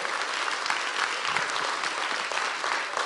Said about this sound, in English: Come on, give God a hand praise. This is amazing what God is doing.